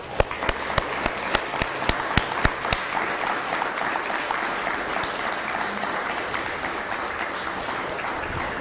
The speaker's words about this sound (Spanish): Ahora sí, un fuerte aplauso a todas las naciones.